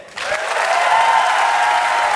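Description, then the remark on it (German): A large audience at a live show in Berlin bursts into sustained applause for the woman at the organ, a dense wash of clapping that rises sharply after a brief quiet start and stays loud and steady, with faint cheering mixed in. “Doch zuerst ein großer Applaus für die Frau an der Orgel.”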